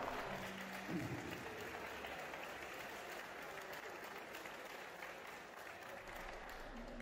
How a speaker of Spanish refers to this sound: Fuerte el aplauso.